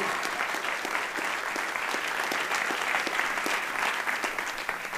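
Sustained audience applause, dense and steady throughout, with many overlapping claps forming a loud, continuous wash of sound and no speech.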